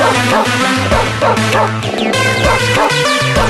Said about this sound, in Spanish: Ladridos, gruñidos. Ya, ya, ya. Bueno, más que parece el fin de la fiesta ya, ¿no? Si se mm. están escuchando ladridos en la sala.